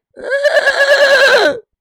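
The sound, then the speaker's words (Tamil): A single loud, clear horse whinny lasting over a second, with a wavering, trembling pitch that rises then slides down at the end, no other sounds around it; horses neighing as they fall dead in a battle. “குதிரைகள் கணித்துக்கொண்டே கொண்டே செத்து விழுந்தன”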